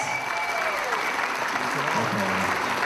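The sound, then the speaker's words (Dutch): An audience at an awards event claps steadily for a performer, a dense, continuous wash of applause that holds at an even level for the whole stretch, with a faint tonal whine and a few low voice-like murmurs underneath. “Goed Applaus.”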